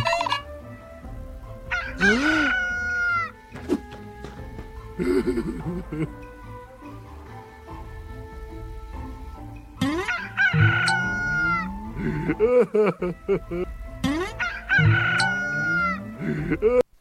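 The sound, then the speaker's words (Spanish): A rooster crows loudly several times in succession, each long, rising and falling call separated by a short pause, with a steady low background hum underneath. “Cuando oyó cantar al gallo, lloró amargamente.”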